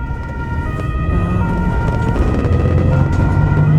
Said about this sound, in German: Mit Sirenen fahren sie aus der Thuner Altstadt.